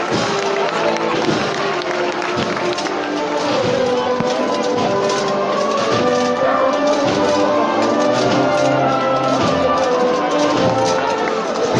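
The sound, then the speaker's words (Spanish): A large crowd gathered at a procession applauds and cheers steadily as flower petals fall, a dense, continuous wash of clapping and shouting voices that stays loud throughout, with scattered calls rising above the din. “Y con el aplauso, los vivas de mucho público aquí congregado, pues se incrementa la cantidad de pétalos que caen.”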